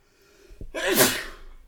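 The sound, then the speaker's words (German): A single sharp sneeze erupts after a brief inhale, bursting loud with a breathy, hissing release that fades out over a second, with no talking around it. “Gesundheit.”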